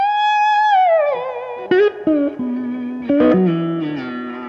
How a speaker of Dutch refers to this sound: Het is namelijk echt zo'n run. Zo'n zo gospel run.